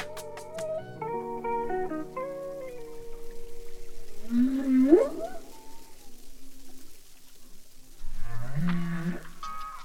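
Whale song: layered, harmonic moaning tones that hold steady, then a swelling upward-sweeping cry midway, and a low groaning call rising again near the end, with no one speaking.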